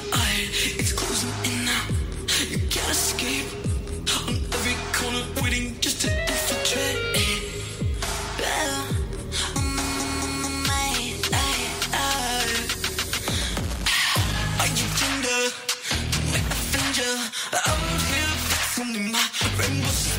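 A full, loud pop track plays throughout, with a driving beat, thick bass and bright layered synths, close and steady from start to finish with no one talking over it.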